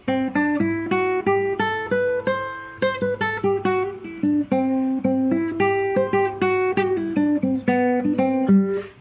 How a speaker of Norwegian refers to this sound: Lydisk skala er jo også en slags durskala, men fjerde trinn er da forhøynet, så i stedet for Vanlig dur, som høres sånn ut Så er da fjerde trinnet høyt, så én, to, tre, fire.